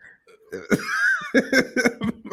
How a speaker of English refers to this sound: Look, you hear, all hear this man coughing and everything because he laughing at me.